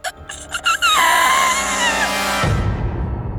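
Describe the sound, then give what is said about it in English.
A few short sharp vocal bursts lead into a loud, sustained, high-pitched scream from a woman that wavers in pitch, then breaks off into a low rumbling noise. “She screamed.”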